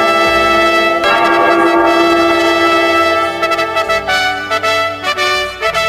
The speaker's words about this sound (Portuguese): Toca o sino, sacristão!